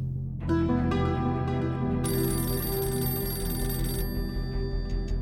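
A telephone rings loudly and steadily, its bright tone sustained over a low humming background, with a harsher, buzzier burst of ringing in the middle. No voices. It is an unknown caller phoning a mother to demand a ransom of one million francs for her kidnapped son.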